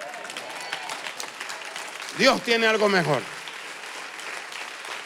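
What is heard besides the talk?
audience applauding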